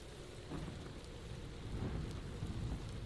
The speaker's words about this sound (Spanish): La tormenta parecía empezar a calmarse también, hasta que un relámpago cimbró el lugar.